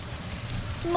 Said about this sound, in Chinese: 哦，天气预报干嘛那么准？唉，这么大的雨怎么走啊？